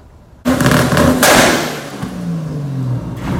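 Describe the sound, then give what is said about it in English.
A car that shoots flames from its exhaust roars with a sudden loud exhaust blast, then a second sharp burst as the rumble drops in pitch, loud, with no voices. “But before I do that, Epico, I hear you're looking for a war, and I have a car that shoots flames too.”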